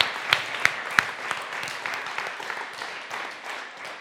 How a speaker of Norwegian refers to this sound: For et fantastisk barnekor vi har i Frimisjonen. Jeg syns de er helt fantastiske. Kan vi gi dem en applaus til? Ja, det kan vi faktisk.